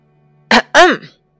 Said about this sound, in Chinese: 魔法师清了清嗓子说